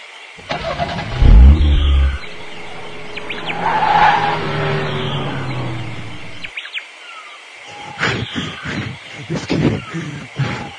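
A car engine revs hard and the vehicle accelerates away with tires skidding, a loud low rumble that rises in pitch before fading, followed by scattered clattering noises.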